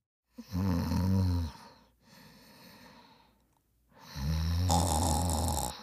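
A person snores loudly while asleep in two long, rattling inhalations, separated by a softer, breathy exhale; nobody speaks.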